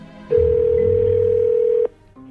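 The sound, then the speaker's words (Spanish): A telephone ringing tone, from a call placed to a woman's husband, sounds once as a steady, loud electronic hum lasting about a second and a half, then cuts off into faint background quiet. “Vamos a llamarle.”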